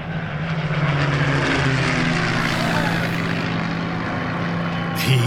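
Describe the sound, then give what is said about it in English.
A de Havilland Moth propeller monoplane's engine drones loudly and steadily, a dense buzzing roar with a strong low hum and a slight surge near the end, as pilot Christopher Draper brings the nose down over London to fly through Tower Bridge. “In the cockpit of his de Havilland Moth monoplane, the pilot zeroes in on his target.”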